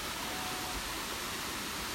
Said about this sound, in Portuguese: Bom desse, desse gravador aí é que tá perto da água. E barulho de água nunca enjoa. Barulho de água nunca enjoa.